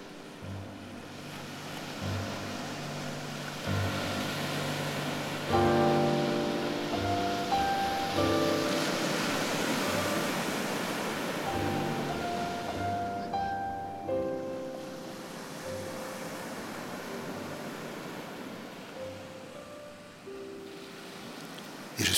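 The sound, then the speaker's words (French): Steady, rushing wash of calm sea waves on the shore fills the whole stretch, with sustained musical tones layered over the surf and no one talking. “devant cette bière, face à la mer.”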